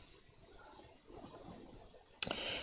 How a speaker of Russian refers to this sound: Сверчки на фоне топ, когда уехал из Якутска.